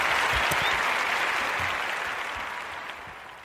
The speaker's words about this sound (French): bravo, on va, ah, mettre, on va mettre l'applaudissement comme ça.